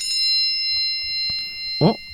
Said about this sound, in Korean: 그리고 이때 전화가 울렸다.